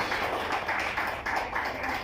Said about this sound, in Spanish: Amado hermano, Él ya pagó nuestra paz. Amén. Dar un aplauso poderoso a Él. Él ya pagó nuestra paz.